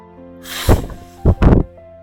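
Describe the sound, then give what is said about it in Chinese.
A big, breathy whoosh of a lion blowing a puff of air at a mosquito, followed by two shorter gusty bursts, all over a soft, steady musical backing with no talking. “接着，狮子对蚊子吹一口气”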